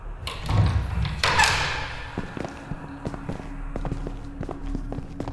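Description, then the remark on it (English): A large, heavy iron door grinds slowly open with a deep rumble and a harsh scraping surge, then settles into a low hum broken by scattered clanks and thuds. No one speaks. “slowly opened the door.”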